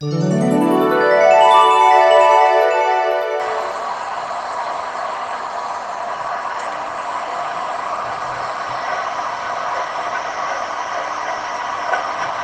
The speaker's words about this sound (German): Eine Waschmaschine. Oh nein, das ist nicht ein Hammer.